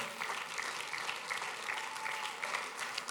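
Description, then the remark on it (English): A church audience claps steadily for people coming to the front to pray, a dense, continuous patter of many hands with no pauses, holding an even level throughout. “Go ahead and clap for them.”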